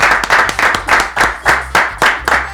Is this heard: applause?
yes